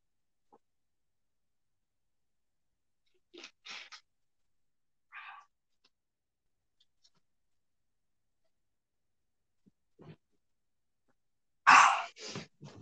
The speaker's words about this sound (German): Ja, aber das war jetzt erstmal so ein richtig großer Schluck von Wodka. Äh, ich meine Wasser.